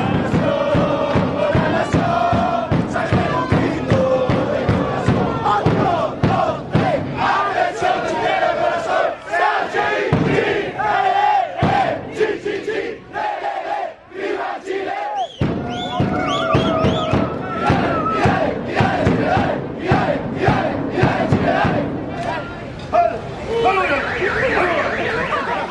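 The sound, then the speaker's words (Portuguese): A large crowd of football supporters loudly chants a war cry in unison, a dense wall of voices with a rhythmic, pulsing cadence that briefly thins in the middle before surging back. “É, porque esse daí, na verdade, é mais um, um, grito de guerra.”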